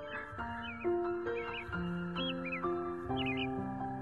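Several short, bright bird calls chirp in quick bursts, riding over a steady bed of sustained musical chords that change every half second or so. The calls are from magpies darting out of a field of flowers, flapping their wings and flying off to circle in the sky.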